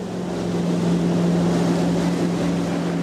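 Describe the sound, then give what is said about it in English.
A metal jet boat carrying a dozen people roars steadily up the Snake River through Hell's Canyon National Recreation Area on the Idaho-Oregon border, its engine drone loud with a constant low hum over rushing water and wind, no voices. “A metal jet boat holding a dozen people zooms up the powerful Snake River through Hell's Canyon National Recreation Area.”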